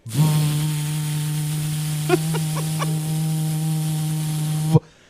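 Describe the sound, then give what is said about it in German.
In a tattoo studio, a voice imitates a tattoo machine's buzz: one steady, low-pitched, rich drone held for about four and a half seconds with a few faint clicks partway through, then it cuts off abruptly. “Nein, Tätowiermaschine natürlich.”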